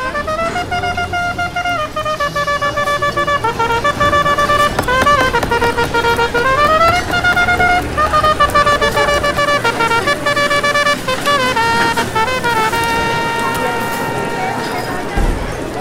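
Busy ambience at the Contramar restaurant on a Friday afternoon: a steady wash of indistinct crowd chatter under loud, sustained melodic tones with sliding pitches, continuous throughout.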